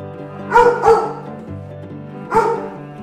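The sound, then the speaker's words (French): Several dogs bark with reverberation at the SPA animal shelter in Gennevilliers, two quick woofs followed by another after a pause, over a steady background hum and yapping from other dogs. “On est à la SPA de Gennevilliers qu'on va découvrir euh, ensemble.”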